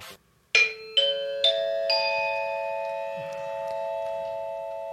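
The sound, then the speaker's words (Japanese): A four-note ascending electronic broadcast chime, like a public address announcement tone, is pressed to introduce a town weather information broadcast and rings out clearly, each bell-like note sustaining and overlapping into a lingering ring. No one speaks. “さてお時間が25分になったのでここで気象情報のあれをしようと思いますそして放送チャイムえっ、ー、と放送チャイムどれだっけあこれだ押します”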